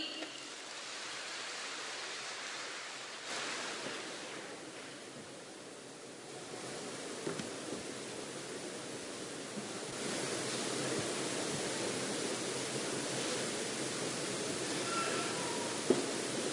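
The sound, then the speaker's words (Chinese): An audience at a Guan Yin Citta Dharma Door (Xinling Famen) gathering applauds to welcome a speaker from Henan, clapping steadily for about sixteen seconds, a dense, even wash of clapping that swells slightly partway through, with no voices heard over it. “心灵法门真实不虚，让我们掌声欢迎。”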